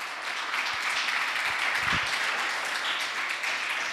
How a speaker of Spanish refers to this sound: ¿Por qué no les damos un fuerte aplauso a todas esas personas que están conectadas del otro lado de la pantalla?